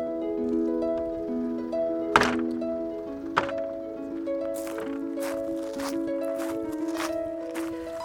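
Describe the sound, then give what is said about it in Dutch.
Footsteps of people walking over a small bridge into the Hof van Schaarsberg, opening with two heavy thunks and then a steady run of hollow-sounding steps over a continuous tonal background. “Nou, we lopen hier het bruggetje over en we staan in de Hof van Schaarsberg.”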